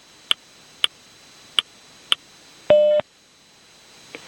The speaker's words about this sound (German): Beim nächsten Ton ist es 20 Uhr 0 und 10 Sekunden.